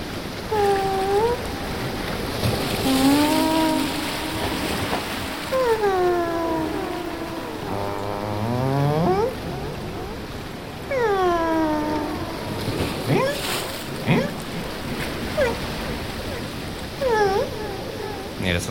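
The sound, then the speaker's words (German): Humpback whale song off the coast of Fraser Island rises and falls in long moaning sweeps and whoops, one call after another, over a steady hiss of ocean noise that sounds far off and underwater. “Wenn man Glück hat, kann man hier vor der Küste aus Buckelwale sehen. Und es war mir, als könnte ich sie sogar hören.”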